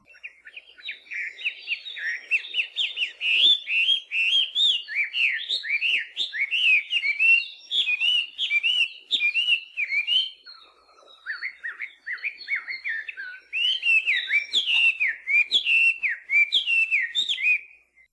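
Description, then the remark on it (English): A loud melodious laughingthrush sings continuously, pouring out rich whistles and paired, rising-and-falling notes in a rapid, varied stream, with only a brief pause midway and no voices. “Melodious laughing thrush are native to southern China and southern Asia”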